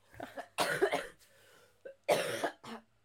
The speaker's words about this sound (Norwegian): bare la meg hoste og, og snørre og gørre litt først